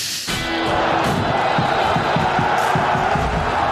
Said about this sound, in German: Schön, dass ihr da seid. Ja, Applaus für euch, bitteschön.